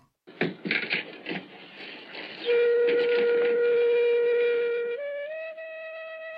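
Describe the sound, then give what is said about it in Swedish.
A flute, played by one of a medicine man's assistants to open a meeting in an apartment in Örebro, Sweden, starts with a few breathy, fluttering notes, then holds one long steady tone that steps up to a slightly higher pitch and sustains. No one speaks. “Träffen i lägenheten inleds med att en av medicinmannens medhjälpare spelar lite flöjt.”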